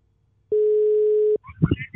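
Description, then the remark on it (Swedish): A single steady telephone ringing tone sounds while a call is placed to a footballer, a clear electronic burst of just under a second, followed by a voice starting to speak. “Eh, så vi ska ringa smyggiffaren eh, och eh, profilen … och höra vad han säger om Giffarnas säsong så långt.”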